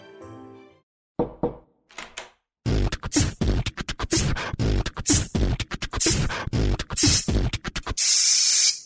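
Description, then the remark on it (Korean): A quick run of sharp taps and thumps builds to a loud hiss of a spray bottle at the end: a Toilish portable toilet seat cleaner being sprayed. “뿌리세요. 새 것처럼 나만의 화장실 토일리 씨.”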